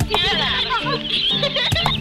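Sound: bird clucking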